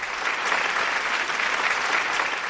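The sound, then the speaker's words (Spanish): A large audience in a gymnasium applauds steadily, a dense wash of many hands clapping at once, sustained and loud for the whole moment without pause. “Todo el gimnasio aplaude.”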